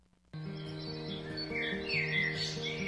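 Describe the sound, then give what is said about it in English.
Several birds chirp and twitter in quick overlapping calls, growing busier toward the end, over a steady low sustained musical tone that starts abruptly. “One thing we all have to remember as the weather gets colder, so do the birds.”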